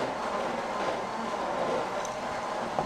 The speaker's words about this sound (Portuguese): Olha o barulho do liquidificador aí, ó.